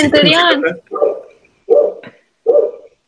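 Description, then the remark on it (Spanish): A female dog barks three times at an even pace, fairly loud, following a brief burst of someone talking at the start. “Ay, mi perra. Él quiere participar,”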